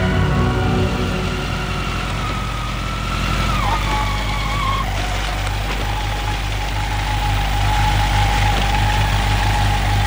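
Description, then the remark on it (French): A small scooter engine idles steadily, a continuous buzzing drone with a brief dip in pitch partway through before settling back into its even, throaty hum. “Son père lui a acheté un superbe scooter.”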